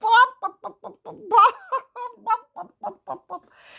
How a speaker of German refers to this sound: Die Hühner lachten immer mehr.